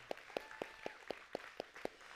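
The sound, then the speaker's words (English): Audience applause for the announcement of a new middle school small group, heard as a steady, evenly paced run of about eight crisp claps, fairly faint, with no voices over it. “And this middle school small group, you can clap for that.”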